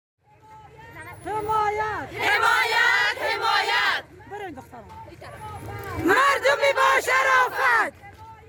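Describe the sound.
A crowd of women protesters in Kabul, Afghanistan, shouts the chant "Support us, you people with dignity" in two loud bursts, rising and falling together over a low rumble of background noise, with a brief lull between the rounds.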